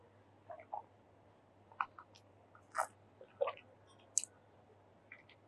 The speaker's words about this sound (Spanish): Ahora vamos a hacerlo en boca, lo vamos a pasear un poquito por la boca y hasta el segundo trago lo catamos porque si no en el primero pues vas a sentir toda la, todo lo, lo que tenga de potencia el vino.